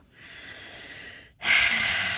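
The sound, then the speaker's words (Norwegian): Two loud, airy exhales through the nose, the first longer and softer, the second a sharper, stronger snort-like blow after a brief pause, with no talking. “jeg puster.”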